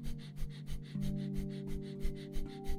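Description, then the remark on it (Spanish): Rapid, rhythmic breathing through the nose in a guided 30-second accelerated breathing exercise, short inhales and short exhales, quick sharp puffs about three per second, fairly loud over a steady low musical hum. “Iniciamos 30 segundos de respiración acelerada por la nariz.”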